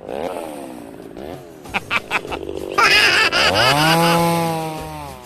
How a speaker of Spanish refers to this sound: Ay, Rorrito, está muy pedorra esa moto, ya, bájale.